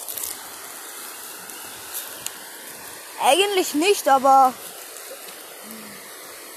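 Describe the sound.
A steady rush of flowing river water fills the background at a rest stop beside a river along a walking trail, with a voice speaking briefly over it midway through.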